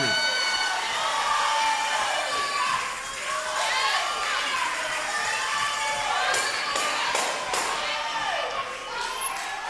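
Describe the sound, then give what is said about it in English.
A church audience cheers and shouts continuously, many voices overlapping in loud, jubilant praise to God, with occasional claps and thumps breaking through the steady roar. “That's the sound that's got to happen every time we say, Give God the glory.”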